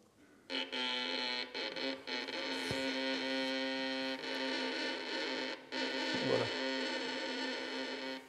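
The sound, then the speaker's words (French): A violin bow drawn slowly with heavy pressure gives a harsh, grinding, buzzy tone that holds steadily for about eight seconds, loud, with a few brief breaks in the sound. “Dans le dans l'éducation des violonistes, c'est de combiner, de combiner une très grande lenteur d'archet avec une pression euh, forte.”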